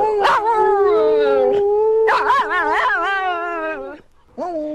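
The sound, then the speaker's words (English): A dog, Yuki, howls in long, wavering, sing-song phrases, two drawn-out howls and a short third one, crooning along with President Lyndon B. Johnson's voice in a duet called a song, LBJ on lead vocals. “The duet is called …”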